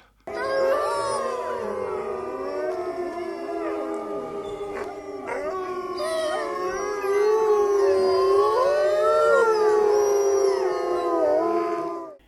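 A pack of wolves howls together, several long wavering cries rising and falling and overlapping into a continuous chorus for the whole stretch, fairly loud and with no voices speaking.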